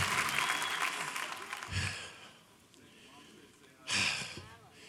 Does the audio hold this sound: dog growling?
no